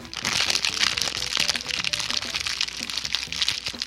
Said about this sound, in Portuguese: pronto, me vinguei do editor. Agora sim, porque gostoso é você editar e o cara tá fazendo barulho com plastiquinho, né?